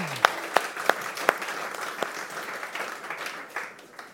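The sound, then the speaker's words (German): An audience breaks into applause: a few sharp, separate claps ring out first, then blend into a dense, steady wash of many hands clapping that gradually softens. “Okay, lasst uns einen großen Applaus geben, ihr dürft euch wieder hinsetzen.”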